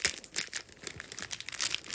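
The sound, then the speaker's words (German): A chocolate bar wrapper being torn open: dense, crackly bursts of crinkling foil and paper, irregular and fairly loud, with no talking over it. “Kannst du das mal, kannst du das es mal auftun? Aufmachen, aufreißen, aufreißen!”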